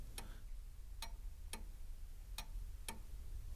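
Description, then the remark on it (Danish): A grandmother's old clock ticks steadily, five sharp clicks spaced about half a second apart in a slightly uneven rhythm, clear over a low background hum. “som jeg faktisk måske burde sende til dig, som er lyden af min mormors gamle ur, som jeg har brugt i en række film også.”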